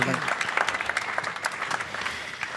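An audience claps steadily, a dense patter of many hands at even loudness throughout, sounding fairly close with no voices breaking through.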